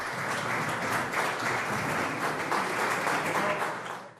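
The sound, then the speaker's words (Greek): Steady applause from a group as the statements of Greek Prime Minister Kyriakos Mitsotakis and Turkish President Erdogan end in Athens, with the Turkish president clapping first; a dense crackle of many hands clapping at an even level for a few seconds before tapering off, with no clear voices over it. “Οι δηλώσει των δύο ηγετών ολοκληρώθηκαν με τον Τούρκο πρόεδρο να χειροκροτά πρώτο, χωρί να δίνει συνέχεια μετά την ουσιαστική παρέμβαση του Πρωθυπουργού για τη μουσουλμανική μειονότητα στη Θράκη.”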